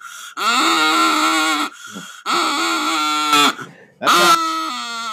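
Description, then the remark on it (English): Three long, nasal, wavering quacks blown on a duck call on a porch, loud, drawn out and sliding in pitch, with short pauses between each blast. “Uh, yes, and Amy Bollinger has said, Why no duck calls?”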